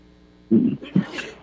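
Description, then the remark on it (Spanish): A single sneeze: a short voiced catch of breath, then a sharp, hissy burst that fades quickly. Nobody talks. “Salud.”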